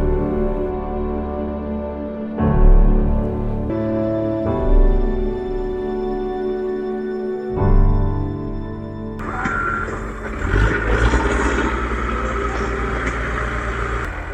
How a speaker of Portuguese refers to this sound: O barulho do trator substitui o silêncio do luto. Agora é o meu irmão. Então, enquanto a máquina está a máquina tá trabalhando aqui, ó, abrindo a vala, é uma vala imensa, de 10 em 10 estão sendo enterrados, né?